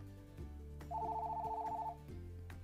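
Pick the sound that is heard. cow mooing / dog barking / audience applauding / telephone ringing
telephone ringing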